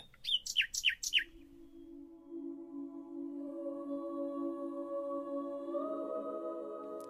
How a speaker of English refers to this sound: Current research suggests that male nightingales sing complex songs to communicate how good a father they will be to their young, the better the singer, the better the dad.